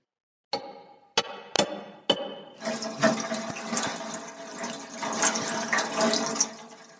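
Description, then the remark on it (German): Several sharp metallic clicks or knocks open, then a loud, continuous rushing gurgle of water flowing through the pipes of a heating system takes over, a heating disturbance noise much like a toilet flush, with no talking. “Ja, das ist ein Störgeräusch einer Heizung.”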